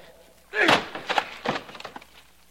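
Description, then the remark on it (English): A heavy wooden crash as a locked door is broken down, followed by a few smaller knocks and creaks of splintering wood, fairly loud, with no talking. “Help me break down this door.”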